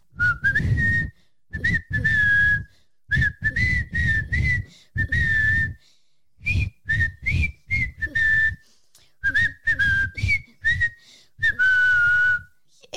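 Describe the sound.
A person whistles a simple children's song melody, clear and fairly loud, in short phrases of several notes separated by brief breathy pauses, with no talking.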